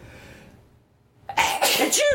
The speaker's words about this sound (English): Sorry. Uh, oh, that was a graphic sneeze on my part.